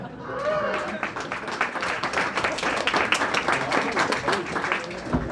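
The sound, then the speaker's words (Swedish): An audience at the Sci-Fi World cosplay competition in Helsingborg, 2019, breaks into steady applause for itself. Many hands clap in a dense, bright patter that holds for several seconds, with a few voices mixed in underneath. “Så ge er själva en applåd också.”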